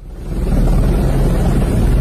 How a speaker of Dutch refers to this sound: Want de politie in Brazilië die zegt gewoon weg jullie van het strand. En daar gebruiken ze dus een helikopter voor om mensen van het strand te blazen. En dat klinkt ongeveer zo.